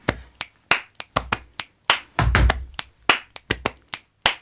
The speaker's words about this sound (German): Also ich habe auf den Brustkorb geklopft, in die Hände geklatscht, geschnipst und mit den Füßen gestampft.